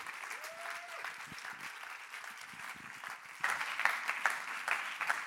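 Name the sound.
audience applause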